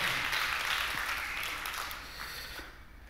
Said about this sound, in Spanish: Dan aplauso a Cristo Jesús en este lugar. Amén.